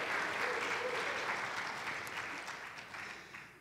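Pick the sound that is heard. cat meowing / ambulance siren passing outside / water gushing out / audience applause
audience applause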